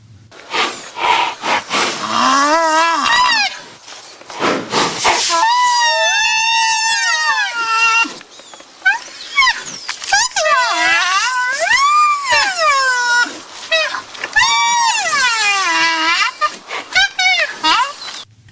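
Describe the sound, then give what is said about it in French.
A baby white rhinoceros whines in a series of long, high, wavering squeals that rise and fall in pitch, loud, with brief pauses between the cries. “Il s'agit du son d'un bébé rhinocéros blanc, et on dit qu'il geint.”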